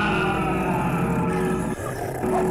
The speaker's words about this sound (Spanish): Diciendo esto, el perro infernal atacó en su propia cama sin piedad al viejo miserable gritos y los horribles gruñidos del cancerbero se mezclaban mientras el viejito diabólico bailaba de gusto en el centro de la habitación.